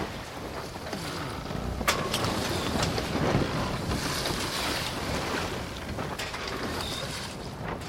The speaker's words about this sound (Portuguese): Arruma uma posição confortável aí para você não enjoar, porque o mar tá agitado.